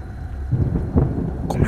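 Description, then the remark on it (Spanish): A night thunderstorm with deep, rolling rumbles of thunder swelling over a steady hiss of rain, with a brighter splash of rainfall near the end. No one speaks. “a llover y nos protegimos bien.”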